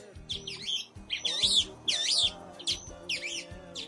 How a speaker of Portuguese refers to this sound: caraca, velho, cantou um passarinho aqui, aí você fica olhando, procurando o passarinho pra ver se cantou mesmo, entendeu?